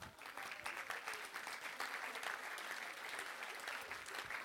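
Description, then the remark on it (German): Sustained applause from an audience at ICF Bern, a dense, steady crackle of many hands clapping at fairly even loudness throughout, with no one speaking over it. “Grossen Applaus!”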